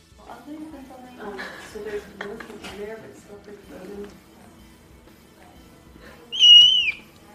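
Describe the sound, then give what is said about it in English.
Clouded leopard cubs give one loud, shrill, piercing squeak near the end, rising and falling briefly. Softer murmuring vocal sounds come before it. “Oh god, they're loud and shrill.”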